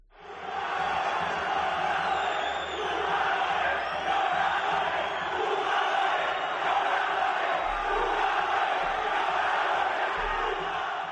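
A large stadium crowd at the Elmántico shouts and chants together in a dense, continuous roar that stays loud and steady throughout, with many voices blending into one mass of sound.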